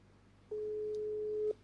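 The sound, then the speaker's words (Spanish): A single steady ringback tone on an outgoing phone call placed live on air, a flat mid-pitched hum lasting about one second before cutting off, over a faint low background hum. “Suena, ¿eh?”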